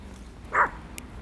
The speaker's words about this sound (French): Tu vois un chien Ouais, il y a un chien.